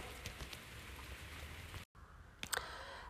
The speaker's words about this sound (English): It's Sunday morning. Um, I haven't done a lot of uh, rounding up because I've been um, busy birthdaying a lot, and uh, it's also been raining a lot.